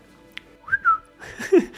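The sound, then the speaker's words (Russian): A person whistles a couple of short, sliding notes, moderately loud, followed by a brief burst of noisier vocal sound. “Мог просто свистом.”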